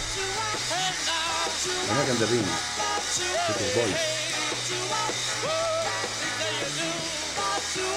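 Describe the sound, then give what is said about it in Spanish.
A live rock album recording where the audience screams nonstop, a loud, continuous wall of shrieking voices layered over the music with no letup for the whole stretch. “es un sonido constante para el escrito del fondo del público. Es tremendo.”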